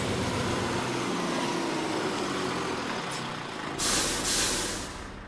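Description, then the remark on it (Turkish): A bus's engine rumbles steadily, then near the end its air brakes let out two loud, sharp hisses as it comes to a stop. No one speaks. “Şoför efendiye söylesenize, acaba makineyi durdurur mu?”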